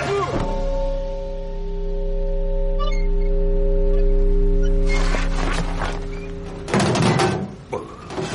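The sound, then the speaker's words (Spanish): A heavy thump as a body crashes into a huge bell in a church bell tower, which rings out with a deep, steady, sustained hum of layered tones. Clattering, thudding knocks break in over the fading ring near the end. “Los chorlitos vuelan hacia el campanario y Sombra se choca con la enorme campana.”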